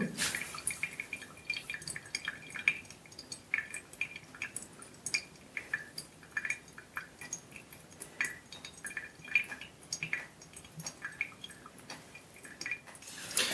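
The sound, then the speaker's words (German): Steady, irregular dripping of water trickling through a coffee filter bed as the last water drains away, a quick patter of small drops with faint liquid splashes, continuing throughout with no voices. “So, jetzt wird's wieder spannend, wenn das letzte Wasser weg ist, zu sehen, wie das Kaffeebett aussieht.”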